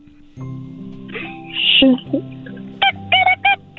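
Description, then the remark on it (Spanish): A man, asked to imitate a hen, does so with a nasal voice: a long, wavering squawk, then a quick series of short, sharp clucks, fairly loud against a low background hum. “Hazle, hazle como un monkey. Changuito. No. Hazle como, como una gallina.”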